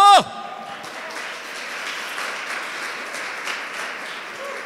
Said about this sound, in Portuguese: E se você crê nisso, aplauda Jesus bem alto!